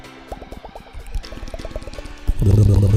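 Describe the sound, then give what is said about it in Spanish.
A voice imitates the sounds an ASMR performer makes into a special microphone, with a quick run of wet mouth clicks and pops in an uneven rhythm, ending in a louder, sustained breathy rustle. “La mujer tiene un micrófono especial y se acerca y empieza a hacer.”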